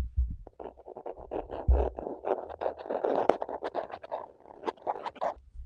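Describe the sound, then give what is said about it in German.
A voice imitates a gnawing, rasping sound heard inside a wall on a summer evening: a rapid, steady run of short scratchy bursts lasting several seconds, moderately loud, with no words spoken. “Also es hört sich so an wie so ein Ratschen.”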